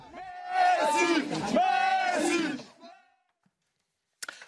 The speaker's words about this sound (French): Euphorie populaire. Voilà l'Argentine et, euh, les, Argentins. Euh, dans la joie, forcément.